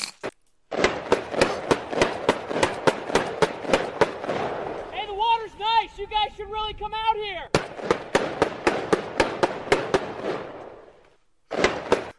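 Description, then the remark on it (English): Rapid, loud gunfire rings out across a lake in the afternoon: dozens of sharp cracking shots in quick succession, about four hundred dollars' worth of ammunition, pausing briefly while a man speaks, then resuming before a short final burst. “That was four hundred dollars worth of ammunition, by the way.”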